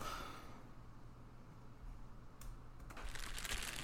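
Faint scratchy rustling from a small rodent that has burrowed into a cornhusk poncho in a linen closet, soft and intermittent at first, then a louder burst of crinkly scrabbling near the end, with no one talking.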